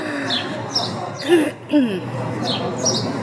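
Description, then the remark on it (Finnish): Bright, high bird chirps repeat every second or so over a steady background hiss, with a couple of lower swooping calls in the middle, like recorded birdsong played back. “Joo, niin, niin koulutetut tää, linnut saapuvat. Täällä on special effektejä.”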